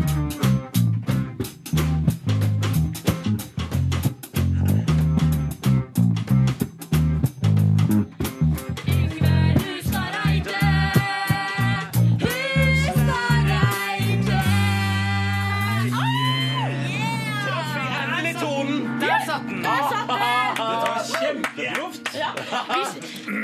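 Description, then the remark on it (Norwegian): A live house band plays, opening with a steady, punchy rhythmic beat for several seconds before sustained melodic tones and wavering, voice-like lines take over, loud and continuous throughout. “er husbandet vårt i dag.”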